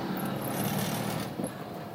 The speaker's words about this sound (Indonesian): dan tuh ini berisik banget motor-motor berisik kedengeran gak sih nolpotnya? Hah? Woeng, woeng, Tuh. Gitu.